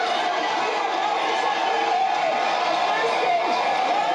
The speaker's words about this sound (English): There's, there's no flashing sign that's saying applause. These people are legitimately going nuts. When have you heard excitement like this? World Series? Football? Listen to this.